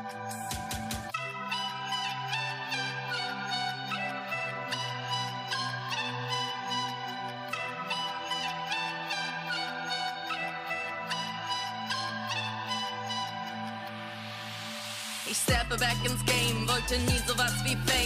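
A music track plays on its own: bright, repeating chime-like synth notes over a steady bass line, building to a rising swell before a heavier, denser section kicks in near the end.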